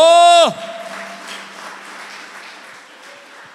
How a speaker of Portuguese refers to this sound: Aplauda Jesus bem alto.